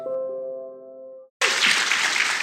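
A sustained musical chord fades out, a brief silence follows, then a loud burst of dense audience applause erupts and continues steadily to the end.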